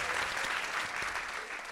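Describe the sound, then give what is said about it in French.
An audience applauding steadily to vote that a man should ask a question, a dense wash of many hands clapping at once with no pauses, fairly loud and with no voices standing out. “Est-ce que vous pensez qu'il doit le faire Oui, par applaudissement, il pose une question ou pas Allez.”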